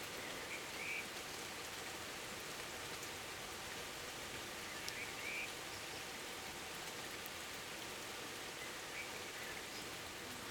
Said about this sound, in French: L'orage m'impressionne particulièrement moi, parce que il y a quelques années, j'ai vécu une expérience euh, un petit peu compliquée avec un orage, en tout cas avec une tempête.